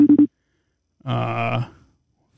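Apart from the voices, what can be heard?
phone call ringing tone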